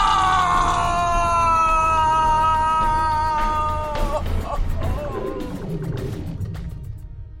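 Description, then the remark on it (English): A man falls to his knees and lets out a loud, agonized scream held for several seconds. Its pitch slowly slides downward before breaking into rougher, ragged cries that gradually fade. “I fall to my knees and let out an agonizing scream as the equation solves itself.”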